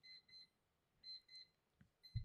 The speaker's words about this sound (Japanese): ちょっとポモドーロタイマーが鳴りましたが